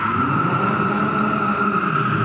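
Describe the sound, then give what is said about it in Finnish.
Sustained tire squeal from a white and black sports car skidding as a driver tests the tires' grip on the surface, with a steady high screech held over a loud engine drone for a couple of seconds, continuous, no talking. “Edelleen siellä siis tuntkuski testailee tämän valkean mustan urheiluauton renkaiden pitävyyttä tuossa pinnalla ja miten auto liikkuu.”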